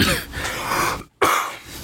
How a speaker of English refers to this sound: forewarned you about this cough. You did forewarn us. I brought cough drops out.